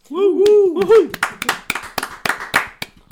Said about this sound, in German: Und ich denke, ihr habt zu Hause auch tosend mit applaudiert mit uns, denn äh, jetzt, wo ihr die Folge hört, ist der Podcast wirklich ein Jahr alt.